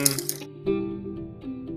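A pen nearly falls off a table, clattering on the tabletop in a quick, bright rattle of several taps, then settles as a faint, steady hum continues underneath.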